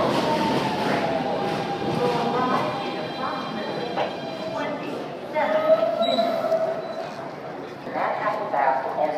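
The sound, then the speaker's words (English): A subway train heading to Union Square rumbles steadily through a tunnel, its loud, continuous roar overlaid with whining metallic tones and occasional squeals, with indistinct voices murmuring beneath the noise. “emerging out of the subway at Union Square.”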